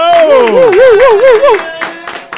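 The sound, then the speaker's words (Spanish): Applause welcoming a guest, with steady claps, while a high warbling cheer or whistle rises and falls over the first part and then drops away, leaving the clapping to fade out. “Vamos a recibirlo con un aplauso, un aplauso a todo el mundo.”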